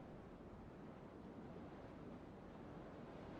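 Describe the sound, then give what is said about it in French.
A steady, unbroken rush of wind blowing, with a broad hissing roar that holds constant for a few seconds, no voices and no distinct gusts or breaks. “Le vent, euh, le vent souffle et, tout le monde est subjugué par, ce qui vient de se passer.”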